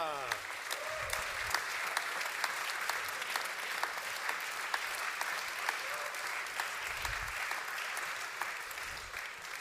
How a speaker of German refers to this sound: einmal Applaus für unseren Gast, unseren ersten Gast